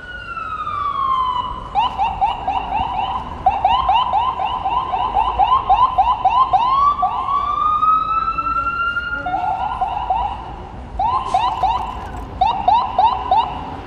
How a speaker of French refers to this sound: En fait, la sirène, c'est un bruit continu, enfin voilà, euh, on le connaît. mais là, c'est des petites saccades. On a l'impression que franchement, ils se font plaisir en fait quand ils passent devant les gens, ils font des petites saccades comme ça